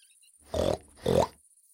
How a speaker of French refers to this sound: Un petit cochon le croisa et le trouva appétissant. Il courut après lui en grognant.